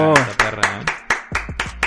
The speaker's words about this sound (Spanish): Ahí ¿eh? en su casa yo sé que están aplaudiendo nomás que...